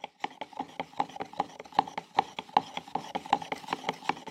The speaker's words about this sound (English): Paint mixing